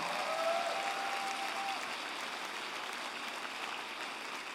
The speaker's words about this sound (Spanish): En el nombre de Jesús, ahora dale el mejor aplauso que le hayas dado al Señor.